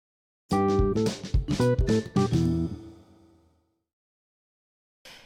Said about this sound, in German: Der Wecker ging. Das war der Wecker